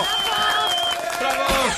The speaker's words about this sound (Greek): Να χειροκροτηθεί μόνο και μόνο γι' αυτό.